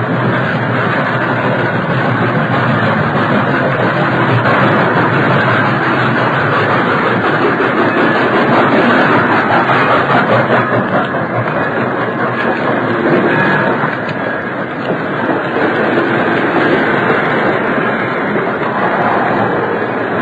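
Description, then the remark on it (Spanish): A freight train rumbles past with a steady, loud roar and rhythmic rattling of wagons, continuous for the whole stretch with a brief dip in intensity midway. “Y tiene que ser un tren de carga, porque no es hora de que pase el pasajero.”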